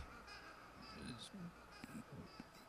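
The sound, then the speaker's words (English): Odd, wailing cries like a baby mixed with screeching owl-like calls, faint and murky, repeating in short bursts over a hissy background at the end of a rock song. “combination baby crying, owl screaming, weird sounds you're hearing in the background.”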